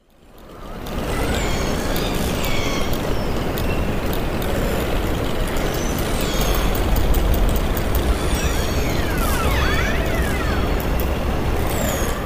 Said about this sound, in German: die Wahlgesänge, okay, erkenne ich, aber dann dieses Klicken das und dieses Klick, genau.